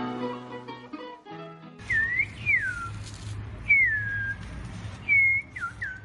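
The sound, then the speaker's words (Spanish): An 80-year-old man whistles a series of sliding, bird-call-like notes to call his birds, several short swooping phrases over a few seconds against a noisy outdoor background, after a brief musical tone at the start. “Así llama a sus pájaros”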